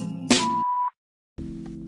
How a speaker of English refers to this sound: Thank you for calling the … hotline. Please leave message at the sound of the beep.